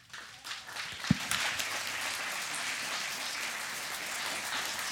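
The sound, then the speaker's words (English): A church crowd breaks into sustained applause, a dense wash of many hands clapping that swells quickly and holds steady, with a sharp thump near the start, welcoming the lead pastor as he comes to the platform. “Now, please join me in welcoming our lead pastor,”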